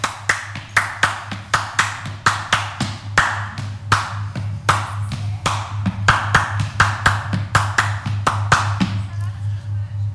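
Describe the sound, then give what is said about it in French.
A steady run of sharp hand claps grouped in threes, giving a lilting ternary rhythm that repeats for several bars over a low constant hum, with no one talking. “Ternaire.”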